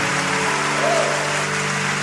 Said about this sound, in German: Komm, wir geben Jesus nochmal einen mächtigen Applaus.